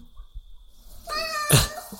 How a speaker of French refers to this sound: Ok. Ça m'a fait peur, mais ça, encore une fois, c'est bel et bien un chat, par contre.